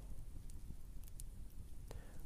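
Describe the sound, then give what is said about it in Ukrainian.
A campfire crackles quietly, with a few sharp, scattered pops over a steady low rumble of outdoor background noise; no one speaks. “Помедитуй на цей вогонь як я зараз медитую.”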